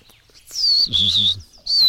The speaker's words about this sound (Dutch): Ik hoor nog een gekraagde roodstaart. Hoor je?